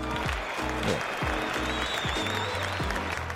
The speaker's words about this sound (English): And I think that deserves a round of applause. So I'm going to give, give myself a round of applause and give you a round of applause. That was a short round of applause. Let me try that again.